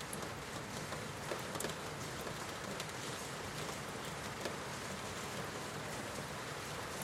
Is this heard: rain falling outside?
yes